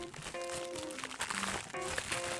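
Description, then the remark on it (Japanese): Continuous crinkling and rustling of paper as an issue of the weekly Japanese wrestling magazine Shūkan Puroresu (Weekly Pro Wrestling) is handled to look at its cover, with soft crunchy bursts throughout and faint sustained musical tones underneath. “じゃあね、早速今日のね、表紙の方を見てみましょう。”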